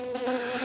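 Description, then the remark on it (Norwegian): A voice imitates the buzzing of the fan behind a kitchen refrigerator, a steady, fly-like drone with a bright nasal hum that holds for a brief moment. “Hvis den lyden her kommer er det ei flue på kjøkkenet? Kan jeg gjerne spørre meg og si Å nei, det er bare vifta bak kjøleskapet.”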